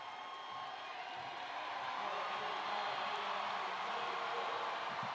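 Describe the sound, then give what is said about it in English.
A basketball crowd cheers in a steady, dense roar late in a game with the score 83-69, as a player goes to the free-throw line. The roar holds for several seconds and swells slightly midway, with no single voice standing out. “And you hear the crowd.”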